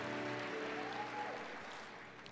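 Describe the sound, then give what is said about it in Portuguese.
A crowd claps steadily, a dense, even wash of many hands with some cheering tones mixed in, gradually thinning toward the end, applauding a man in the audience who has been married for 45 years. “Gente, vamos aplaudir o guerreiro?”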